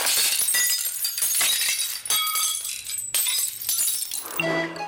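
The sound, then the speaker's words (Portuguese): A loud crash of glass shattering, with repeated bursts of breaking and scattering shards over several seconds, ending in bright tinkling and ringing pieces. “Será uma senhora a cantar ópera, um vidro que se partiu ou uma travagem muito brusca de um carro?”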